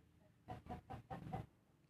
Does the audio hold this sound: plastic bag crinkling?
no